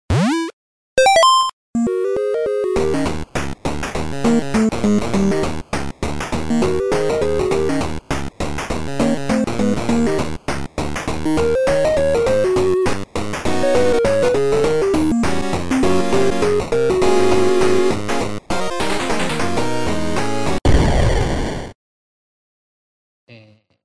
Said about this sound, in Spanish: Bueno, tío, después de haber escuchado eh, la cortina de la trivia